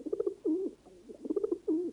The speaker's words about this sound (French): Ah, on vient de recevoir un pigeon voyageur d'un certain Père Lussucroy.